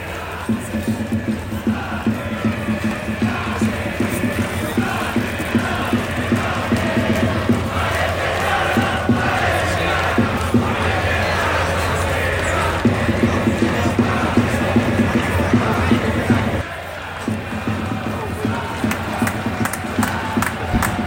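A stadium crowd chants loudly and steadily from both ends, a dense wall of voices with rhythmic surges, holding strong for the whole stretch with only a brief dip near the end.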